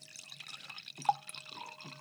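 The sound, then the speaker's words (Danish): Wine pours into a glass with a soft, bubbling trickle. The liquid splashes and gurgles unevenly for about two seconds, fairly quiet, with one brief bright glassy ping partway through. “Nu skal vi lige have lyden af mig, der skinker et glas vin.”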